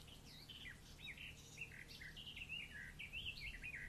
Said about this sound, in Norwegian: Der er det masse fuglekvitter.